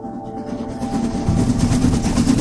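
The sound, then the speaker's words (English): A train rumbles steadily along the tracks, a dense low roar with a faint metallic whine, growing slightly louder as it rolls past, with no voices present. “His funeral train goes from Washington, D.C. to Springfield to New York and other cities along the way.”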